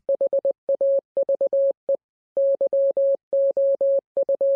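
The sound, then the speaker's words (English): A single steady, clear tone keys out Morse code spelling the phrase 'Have you come here to torture us before the appointed time?': quick dots and longer dashes grouped into letters, with brief gaps between characters and a longer pause partway through. “Learning Morse code today, today's phrase is Have you come here to torture us before the appointed time?”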